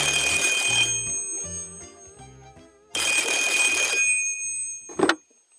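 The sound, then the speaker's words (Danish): An old-fashioned telephone bell rings loudly, two long jangling bursts separated by a short pause, with a soft musical hum lingering between them. “for telefonen ringer igen igen.”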